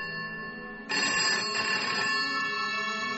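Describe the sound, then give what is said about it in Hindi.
A telephone rings loudly and steadily, its bright electronic tone sustained and intensifying about a second in, with no voices present; a phone in a hotel in Port Blair receiving a call from a home landline. “और सुबह पहुंच के वहां होटल में चेक इन किया ही था कि आनंद का फोन बजा फोन घर के लैंडलाइन से था”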